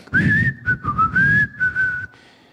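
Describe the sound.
A father whistles at home the same short melodic tune he always whistled, clear and fairly loud, moving through several brief phrases with rising and falling pitch before stopping abruptly.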